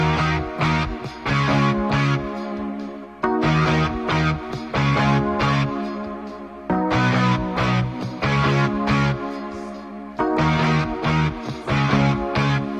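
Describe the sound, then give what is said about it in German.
Distorted electric guitar chugs through loud rock power chords, root and fifth, in a steady, driving rhythm, the thick chord blocks shifting every few beats with brief gaps between phrases; no voices. “Und was natürlich zum schönen Rocksong dazuhört, sind Power Chords.”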